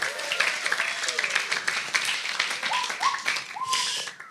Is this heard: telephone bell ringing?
no